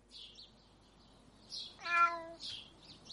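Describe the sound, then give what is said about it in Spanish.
A single drawn-out meow lasting about half a second from a cat on the sill of a half-open window, clear, set against soft hissy background noise that swells and fades around it. “El chico se incorpora y ve un gato en el alféizar de la ventana entreabierta.”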